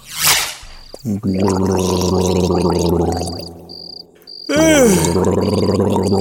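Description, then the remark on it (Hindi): Loud, continuous gargling with water at home, a bubbling throaty rattle that runs for several seconds, pauses briefly, then returns with a rising and falling warble while faint cricket-like chirps pulse in the background. “सुन हाँ तू गार्गल किया कर गर्म पानी से तेरी ऐसी आवाज सुन के तो सब पहले ही डर जाते होंगे उसके बाद तो ना सर वो जितनी देर भी घर पे रहता गरारे करता रहता”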